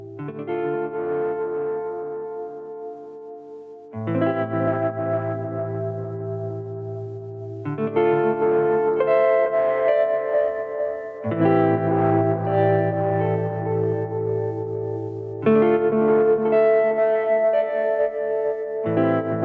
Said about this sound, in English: so the mellotron just was super vibey so this is run through delay as well but uh, the tremolo is last in the chain so the reverb and delay that is on the mellotron is running into the delta trem